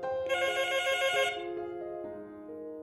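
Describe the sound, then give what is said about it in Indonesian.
A phone ringtone plays a bright, melodic electronic tune with sustained tonal notes that step between pitches, steady and clear with no talking. “Tak sampai setengah jam, telepon berdering.”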